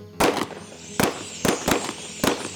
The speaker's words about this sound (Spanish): Una tarde de primavera, la tranquila existencia de los conejos se vio sacudida por unos cazadores de espesos bigotes y caras malhumoradas. Llevaban unas escopetas largas que hacían un ruido ensordecedor cada vez que las disparaban.